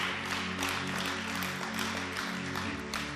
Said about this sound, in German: Komm on, das ist ein Applaus wert, okay?